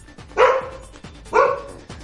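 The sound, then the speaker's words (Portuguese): A dog out in a backyard barks twice, about a second apart, each bark short and sharp over a quiet background with no one talking. “Olha o pobre do cachorro foi lá pra fora no quintal, tá lá fora lambendo as costas porque você cuspiu nele.”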